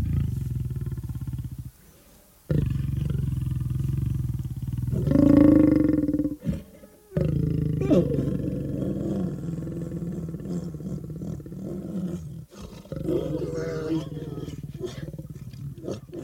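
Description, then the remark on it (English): A lion roars loudly, a run of deep, rumbling bellows broken by brief pauses, with rough grunting swells rising and falling over about sixteen seconds. “And today, through sound, he'll introduce us to the animals that we take for granted and the animals that we love, like a lion, for instance.”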